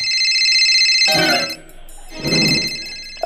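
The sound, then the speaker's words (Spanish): A cell phone ringtone plays loudly, a bright melodic tone with harmonic layers that sounds in two bursts separated by a brief dip, with no talking over it. “suena tu celular y tú estás con la fiera, vamos a suponer que estás con tu mujer, ahí por un lado, y suena tu celular.”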